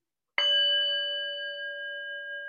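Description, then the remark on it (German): A small singing bowl is struck once firmly, giving a bright, fairly high ringing tone with clear overtones that sustains steadily and fades only slightly, with no talking. “der hat ein bisschen mehr höheren Ton. Ich habe ziemlich kräftig auch.”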